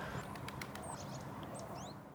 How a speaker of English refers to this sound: I mean, the birds think it's spring. You can probably hear the odd one twittering away in the background.